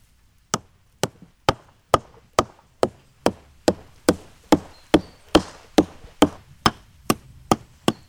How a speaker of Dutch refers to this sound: komt de hamer, de houten hamer. daarmee ga je op de boom kloppen. Een eenvoudige houten hamer.